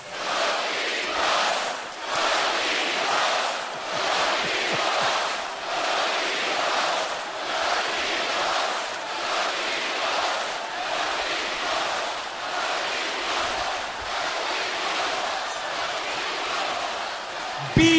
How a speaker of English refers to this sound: They're going to chant. They're not going to chant respect. They're not going to chant best in the world. They're going to chant exactly what you are. In three seconds, they're going to chant cookie puss, cookie puss.